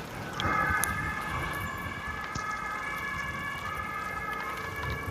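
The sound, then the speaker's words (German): An emergency vehicle siren sounds steadily for several seconds over a low rumble of street traffic, fairly loud as it goes by, with no one speaking. “das nächste Opfer abholen ja. wahrscheinlich.”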